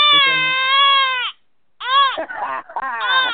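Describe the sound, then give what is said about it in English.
A loud, exaggerated crying wail, sustained at first, then breaking off before a second burst of sobbing, quavering cries after a short pause. “I told you he was going to be crying in that press conference.”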